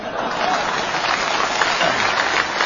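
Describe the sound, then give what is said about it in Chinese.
Sustained audience applause after a joke about a donation of expired Beijing grain coupons: a dense, steady wash of many hands clapping at once, loud and even throughout with no voices standing out above it. “朋友们， 这鼓掌的这都是非常了解情况的。”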